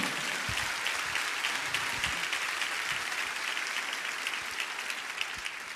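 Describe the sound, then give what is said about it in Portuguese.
An audience applauds steadily for several seconds, a dense, even wash of many hands clapping at a constant loudness with no voices standing out. “Aplauda o Senhor aí, meu irmão.”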